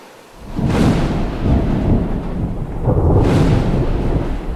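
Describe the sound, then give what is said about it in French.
Heavy rolling thunder rumbles in two big waves, deep and loud, with a steady wash of rain hissing underneath throughout a storm. “Mais à la mi-journée, un orage effroyable le surprend et il revient en courant vers sa hutte.”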